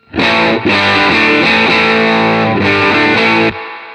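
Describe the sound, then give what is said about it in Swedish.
An electric guitar played through only a Dream distortion pedal set slightly crunchy, loud sustained chords with a gritty, saturated tone, a brief break early on and another near the end before ringing off. No talking. “och sen så ska, kommer jag dra på eh, Dreamen så att den distar lite grann.”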